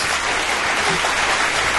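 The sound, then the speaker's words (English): Steady, dense applause from a crowd fills the whole moment, a continuous wash of clapping at an even loudness with no talking over it. It is played after a quiz boss rush ends with the timer stopped at 13 minutes and 45 seconds. “So an applause”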